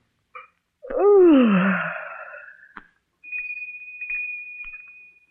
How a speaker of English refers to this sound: Did you ring Miss Devine? No, the bell did.